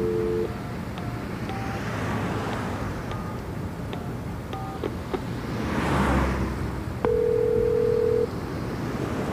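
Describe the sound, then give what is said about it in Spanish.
An old telephone's dial tone hums briefly, then a scattered series of dialing clicks and short beeps follows before a longer steady tone, all over a constant rumble of road traffic, at a gas station in Nueva Rosita before a toll booth. “Allá ah, hay un teléfono viejo.”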